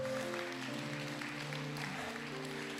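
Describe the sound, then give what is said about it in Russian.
Steady applause from a crowd, given to the Lord, fills the whole stretch, a dense wash of clapping with sustained keyboard-like tones holding underneath. “Да, и огромные аплодисменты Господу.”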